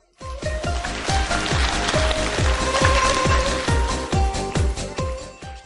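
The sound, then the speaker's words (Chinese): An audience bursts into loud, sustained applause of encouragement called for by the speaker, with a steady rhythmic beat running through it, clapping for about five seconds before tapering slightly at the end. No one speaks. “听懂的，掌声在这鼓励下。”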